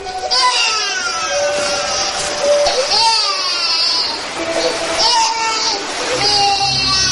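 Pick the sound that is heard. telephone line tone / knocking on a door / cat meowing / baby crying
baby crying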